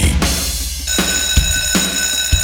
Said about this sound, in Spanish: Suena el timbre, bienvenida a esta sala de clases